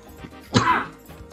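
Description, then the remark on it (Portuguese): A turkey gobbles once, a short, fairly loud burst of throaty warbling that fades quickly. A faint background hum continues around it, and no one speaks. “Bibi é uma espécie de um peru, né, cara?”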